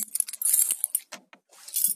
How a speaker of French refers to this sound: Non, je me suis trompé des clés.